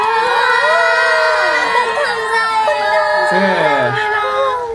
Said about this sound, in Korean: 네, 우리 오픈 스튜디오에서도 큰 환호를 보내주고 계십니다.